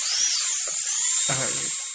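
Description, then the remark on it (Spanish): A dental drill used during a tooth extraction whines at a steady, piercing high pitch for about two seconds, loud and continuous, with a brief low grinding rumble joining partway through. “Ahora solo nos falta mm. esta extracción y ya casi terminamos.”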